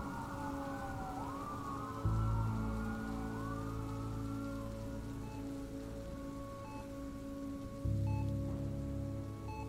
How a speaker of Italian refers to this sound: La pioggia finalmente sembra aver smesso di battere alle finestre. Rimane solo quella leggera pioggerella che ticchetta dolcemente.